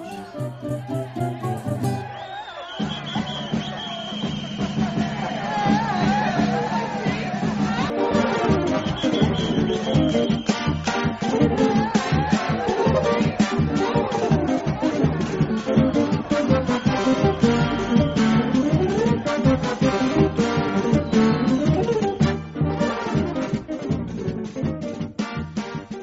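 Frevo music plays loudly and continuously, a dense, fast-moving instrumental texture with a steady driving pulse and busy melodic lines, no voices, fading slightly near the end.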